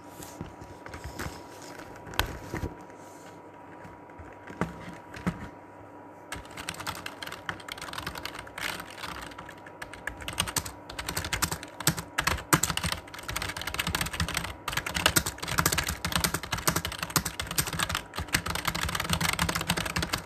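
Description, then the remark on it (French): Steady typing on a second computer keyboard, fairly loud, with quick uneven keystrokes that grow denser and brighter after the first few seconds and continue without talking. “on va passer à un deuxième clavier.”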